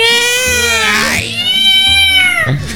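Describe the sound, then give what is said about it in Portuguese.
A loud, drawn-out cat meow with a wavering, whining pitch that rises and falls, followed by a second shorter yowl, prominent with a low rumble underneath. “Imagina legal o gato ficar com o rabo dele ó, cara.”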